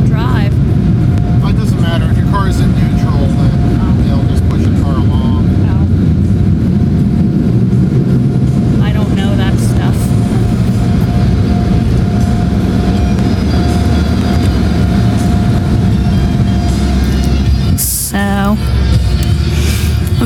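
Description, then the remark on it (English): An automatic car wash running with a car going through: a loud, steady wash of machinery rumble and hissing spray, with whirring brushes and occasional clanks and squeals, continuous for the full stretch. “that was our car wash.”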